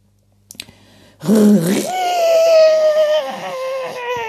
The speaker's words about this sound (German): Macht der Staubsaugermotor da plötzlich. Er wird lauter und aus dem Saugrohr hört Frau Usebuse nur noch ein leises Sch. Und der Staub verschwindet nicht mehr im Staubsauger.